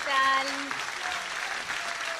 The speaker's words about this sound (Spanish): Acá los aplausos de nuestra, de nuestra querida operadora Micaela llega a todos lados